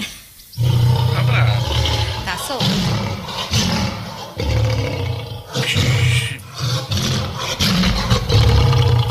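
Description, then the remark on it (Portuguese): A lion roars loudly, a series of deep, rumbling bursts repeating every second or so with brief pauses between them, filling the whole stretch. “Ou é alguém roncando ou é o leão de Postirina. Eu acho que é o leão de Postirina.”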